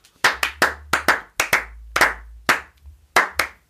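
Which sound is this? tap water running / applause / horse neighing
applause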